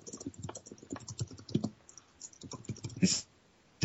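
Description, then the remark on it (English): Rapid, uneven tapping as a man types on a computer keyboard, a burst of typing with irregular clicks and brief pauses, ending with one louder, longer keystroke-like clack. “the sound of a man tap typing.”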